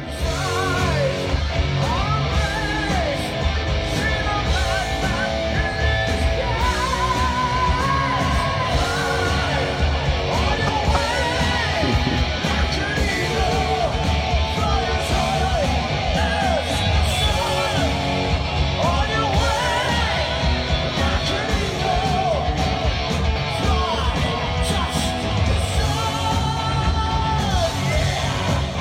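A heavy metal song plays loud and continuous for about half a minute, with dense distorted guitars, pounding drums and forceful, high-pitched sung vocals riding on top.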